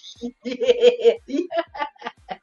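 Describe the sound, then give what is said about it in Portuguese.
A voice imitates the laugh of the cartoon woodpecker Pica-Pau: a rapid, rhythmic string of about ten clipped, high-pitched bursts, fairly loud, with no other sounds around it. “Quem estiver ouvindo, vou mandar uma risadinha do pica-pau.”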